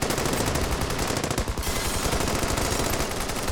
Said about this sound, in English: Pablo and the police traded gunfire for over an hour.